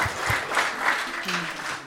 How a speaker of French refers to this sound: Est-ce qu'on peut ah. l'applaudir, s'il vous plaît